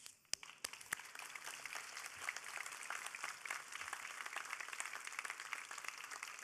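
A crowd breaks into applause, many hands clapping in a dense, steady patter that starts with a few sharp claps and holds at an even level throughout, with no voices.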